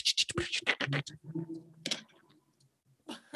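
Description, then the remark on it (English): A voice imitates the rapid clatter of old computer keyboard keys from the early 2000s, with a quick burst of crisp clicks and hisses, a short pause, then a few more. “it's all silent except for just the, the sound of old keyboards from the from the early 2000s just like”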